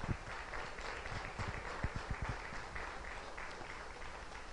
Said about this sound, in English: Would you just give Jesus a big, big clap offering?